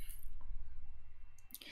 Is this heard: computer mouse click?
yes